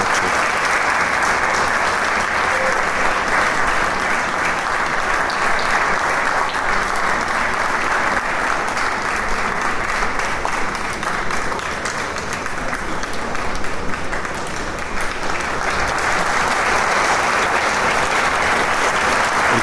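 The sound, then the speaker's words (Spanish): Loud, sustained audience applause after a concert performance of a concerto for clarinet, viola and orchestra in E minor, Op. 88, the audience insisting the musicians come out; a dense, steady wash of many hands clapping that holds at an even level for the whole stretch with no voices on top. “el público insiste en el aplauso y que salgan por un momento los maestros.”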